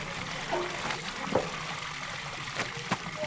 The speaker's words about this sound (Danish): Tyrkiet. En landsby i Konya-området. Ved brønden vasker kvinderne tøj. Det er sidst på dagen.